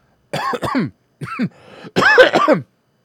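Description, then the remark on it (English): A burst of harsh, raspy coughing, several hacking coughs in quick clusters separated by brief pauses, with throaty clearing mixed in and no speech. “Coughing, thinking about it.”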